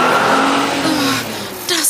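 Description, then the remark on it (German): An oncoming car rushes past very close to a cyclist who is passing a delivery van, its loud engine note sliding downward as it goes by, with a sharp high squeal of tires near the end. “Jetzt kommt mir ein Auto entgegen.”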